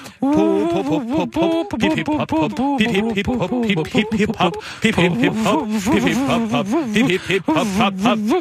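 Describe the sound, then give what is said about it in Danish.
Voices sing a cheerful birthday tune in a breathy, whistling style that imitates a pan flute, with wavering melodic lines, loud, continuing steadily for several seconds. “Hør nu her, hvordan vi alle panfløjte kan, og hør nu her, hvordan vi panfløjte kan.”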